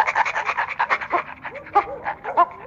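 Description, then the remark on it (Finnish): A dog pants in quick, steady breaths, about six or seven per second, with a few short whiny squeaks slipping in toward the end. “Mä en esimerkiksi niin yhtään tykkää käyttää termiä koira. Se on hirveän loukkaava. Hän on, hän on Pasi.”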